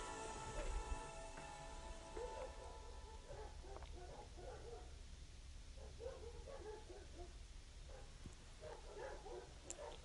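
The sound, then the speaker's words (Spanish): Dogs bark in scattered, irregular bursts, fairly faint over a constant background hiss and low hum, with no one speaking. “¿Escuchaste la bendición de los perros?”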